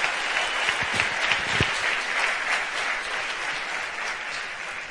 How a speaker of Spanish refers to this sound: Una de las personas con mayor influencia en nuestra vida, en nuestro resultado, y una de las personas responsables del tremendo crecimiento que tuvo Amway en Argentina y también en Latinoamérica, así que les pido un muy fuerte aplauso para él.